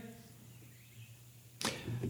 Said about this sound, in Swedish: Den här dörren öppnas och ut kommer två personer.